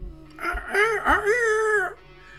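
A single rooster crow rings out close and fairly loud, rising, holding a long wavering note, then dropping away in about a second and a half, with no talking.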